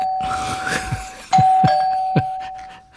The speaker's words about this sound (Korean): 이게 무슨 소리냐면요. 아까 저 1부에 보물찾기, 보물소리였습니다. 초인종 소리.